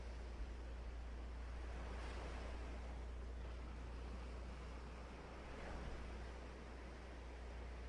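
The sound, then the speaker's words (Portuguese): Steady ocean surf rolls and washes continuously, with swells rising around the second and sixth seconds over a constant low rumble of wind and water, and no voices. “Neste momento, foque apenas em sua respiração e nas ondas que vêm e que vão.”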